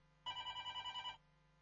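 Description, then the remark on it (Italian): A telephone rings during a live broadcast with a single bright electronic burst of about one second, pulsing rapidly in a trilling rhythm, fairly loud, then cuts off into quiet background hum. “ma abbiamo intanto una telefonata così lo cerco con calma.”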